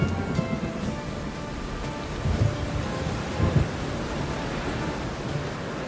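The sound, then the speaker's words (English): Steady rain pours down in a dense, continuous hiss, with low rumbles of thunder swelling twice in the background. No voices are heard. “Then the rains began.”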